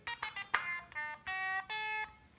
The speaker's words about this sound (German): Ähm, brauchen wir einen Alarmsound zufällig? Ich habe noch einen Alarmsound hier an. Da ist übrigens ein kleiner kork synthesizer analog.